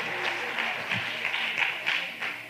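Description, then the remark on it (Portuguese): A crowd applauds the neighbours steadily, many hands clapping in a dense, continuous patter with small surges, with no voices standing out. “Vamos aplaudir pelos vizinhos aqui.”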